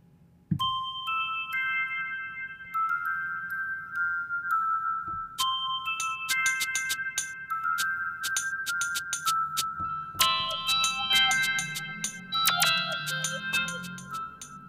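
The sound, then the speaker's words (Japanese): Bright, cheerful self-made instrumental music played as a trial intro: a chiming, bell-like melody of sustained notes joined by steady percussive ticks, growing busier and fuller partway through, with no talking. “えー、なんかねこういう明るめなイントロ BGM 作りたいですね、うん、ちょっと今一瞬これをイントロと仮定してちょっとプレイしてみますか、えー、ちょっと待ってくださいね”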